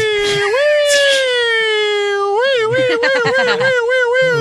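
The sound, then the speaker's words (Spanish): A person wails a long, loud vocal imitation of an ambulance siren, the pitch holding steady then wobbling up and down in rising-falling sweeps for about four seconds. “Hacer el amor con una mujer y que ella empiece a hacer ruidos de, de ambulancia, sí.”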